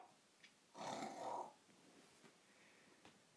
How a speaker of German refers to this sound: Mein Gott, ignoriert mein Hund. Der schnarcht immer so laut.